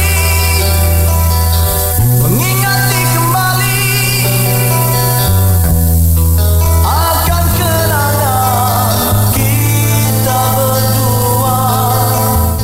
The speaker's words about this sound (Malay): Ha, eh, kita dengar sikit lagu kumpulan. lagu kumpulan ni eh. Ha, dengar jap.